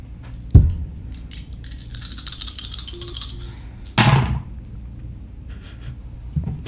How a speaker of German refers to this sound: Okay, dann würfel mal auf Mobility.